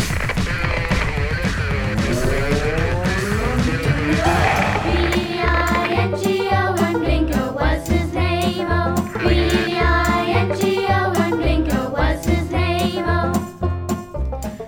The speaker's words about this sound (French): Le, le jingle. Ah ouais, un petit jingle.